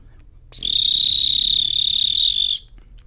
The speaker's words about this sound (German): so ein Triller. Ich benutze übrigens eine ganz normale Acme-Pfeife und meine Acme-Pfeife ist die 211,5.